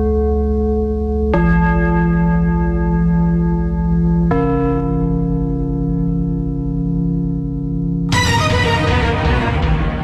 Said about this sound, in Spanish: Otro toque de gong.